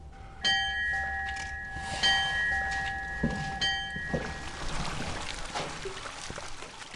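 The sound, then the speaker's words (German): Steady splashing and gurgling of a fountain on the new village square in Emmering near Fürstenfeldbruck, its water jets rising directly from the ground, about half a metre high, continuous, with bright ringing bell-like tones sounding over it during the first few seconds. “Der Brunnen auf dem neuen Dorfplatz in Emmering bei Fürstenfeldbruck plätschert oder vielmehr ein paar Fontänen steigen direkt aus dem Boden hervor.”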